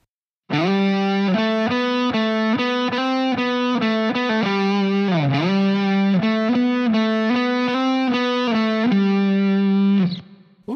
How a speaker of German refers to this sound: Und der Abstand zwischen dem E und dem G ist eine Terz. In diesem Fall eine kleine Terz. Und nochmals in anderen Worten, wir beginnen jetzt unsere zusätzliche Melodie im zehnten Bund auf der fünften Seite.